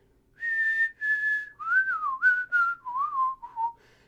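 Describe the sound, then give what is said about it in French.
A cameraman on a music video shoot whistles a TV show theme tune alone: about eight clear, sustained notes stepping up and down, the first two held longer, then a descending run that fades out near the end. “… se met à fredonner la tune puis il fait.”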